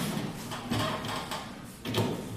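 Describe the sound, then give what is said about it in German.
A pedal-powered washing machine is demonstrated at a travelling art exhibition, giving a steady mechanical churning with repeated swishing, clunking surges roughly every half second. No one speaks. “Das ist eine pedalbetriebene Waschmaschine. Ich kann es Ihnen gerne mal vormachen, was die Idee ist.”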